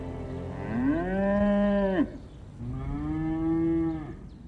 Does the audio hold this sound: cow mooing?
yes